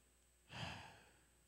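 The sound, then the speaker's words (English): A single deliberate, audible breath, breathed in and out as the two syllables of the name Yahweh: a sharp airy intake easing into a softer, fading release, with no talking around it. “The first one's breathing in, the second one is breathing out.”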